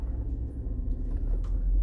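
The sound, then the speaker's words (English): A steady low rumble of road traffic, like cars passing, swelling slightly toward the end with no voices present. “Uh, okay, traffic is starting to pick up.”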